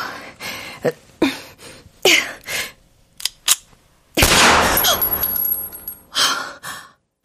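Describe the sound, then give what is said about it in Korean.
A series of sharp pistol shots cracks out at uneven intervals at an indoor shooting range in Mokdong, building to one loud blast whose reverberation rings on for a couple of seconds; heard through earplugs yet felt through the whole body. “귀마개를 착용했음에도 불구하고 총소리는 온몸에 고스란히 전해졌다.”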